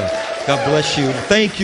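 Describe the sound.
An audience claps steadily throughout, a continuous patter of many hands heard under a man speaking briefly over it.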